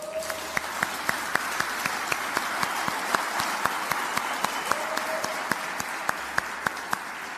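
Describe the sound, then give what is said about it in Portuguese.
A crowd applauds steadily for several seconds, a dense wash of many hands clapping with sharper individual claps standing out, consistent in loudness throughout. “Oh, dá, dá uma salva de palmas para eles.”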